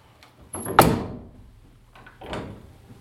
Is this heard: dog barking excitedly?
no